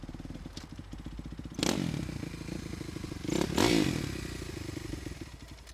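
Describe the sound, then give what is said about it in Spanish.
A motorcycle engine idles and rumbles, steady and throaty, with two brief throttle revs that swell and fade before it settles back to a low putter, as the riders arrive at a house and one gets off the motorcycle. “Llegamos a mi casa, me bajo de la moto”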